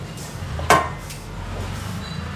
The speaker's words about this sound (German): Gucken wir noch mal rein in die Vorsuppe. Ja. Und jetzt kocht sie.